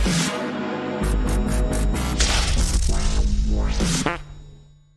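A loud, drawn-out fart sound effect plays from a tape recording for a few seconds, a low buzzing rumble with fluttering, wobbling pitch sweeps that trails off at the end. No one speaks.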